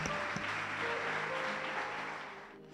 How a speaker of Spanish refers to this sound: ¿Puedo darle un fuerte aplauso al Rey de Reyes?